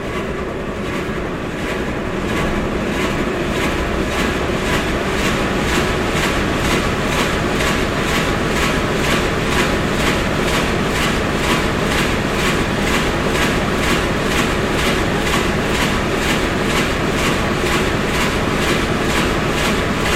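A large eight-cylinder four-stroke VMA 266 diesel engine, rated at 250 rpm and 1000 PS and generating power for radio operation, runs steadily and loudly, its heavy rhythmic chugging pulsing evenly throughout with no voices.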